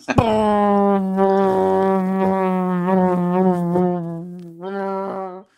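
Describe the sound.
A voice hums a steady, droning buzz imitating a small propeller plane's engine, flown by a first-time pilot in a joke, holding one low pitch with slight wobbles for about five seconds, with a brief break and restart near the end.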